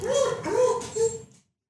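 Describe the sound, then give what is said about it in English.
A dog whimpers and yips, three high, whiny cries in quick succession with rising, sliding pitch, then the sound stops and silence follows. “My dog just got very upset about that.”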